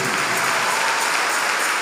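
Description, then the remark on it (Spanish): An audience applauding together, a dense, steady wash of many hands clapping at once, loud and unbroken throughout with no voices standing out. “Se está dando un aplauso, no te está saliendo.”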